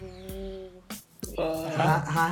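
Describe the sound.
A voice imitates a shrill microphone feedback squeal, like a microphone placed next to a loudspeaker, holding a whining, steady tone, breaking off briefly and then rising into a louder, harsher second wail.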